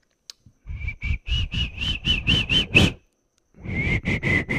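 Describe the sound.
A person whistles in imitation of the call of the Silbón, a legendary creature: a quick run of short, shrill notes, fairly loud, then a brief pause before another string of rapid whistled bursts.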